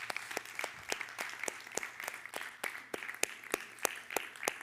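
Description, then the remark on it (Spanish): An audience claps together in steady applause to the Lord after a prayer, the sharp hand claps falling in a quick, fairly even rhythm for several seconds, moderately loud, with no one speaking over it. “Dale un aplauso al Señor, que Él es capaz de hacer la obra.”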